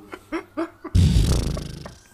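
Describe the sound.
A few short breathy vocal bursts, then someone blows a loud, wet, sputtering fart imitation with their mouth, lasting about a second before trailing off.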